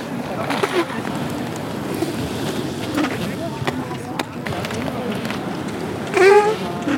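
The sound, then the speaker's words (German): Roller skates roll steadily across a hard floor during a roller derby team's training session, a constant rumbling grind punctuated by sharp clacks and thumps, with indistinct voices calling out in the background. “Also was wir gerade gehört haben, war eine Aufnahme vom Roller Derby Training.”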